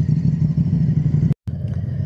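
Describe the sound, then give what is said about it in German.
Two or three motorcycles rumble by, a steady, loud low engine drone that cuts out abruptly for a split second before resuming, with no one talking. “oh jetzt kommt gerade Motorradfahrer, ja. ähm, drei, oder zwei drei. sogar. Man hört sie.”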